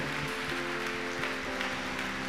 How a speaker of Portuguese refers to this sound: Vamos aplaudir o nome de Jesus.